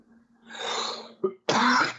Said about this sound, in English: dude, you got a cough, man. No, I have allergies real bad, dude. Okay. uh, I knew I've been trying to not cough, dude. but I smoke a cigar.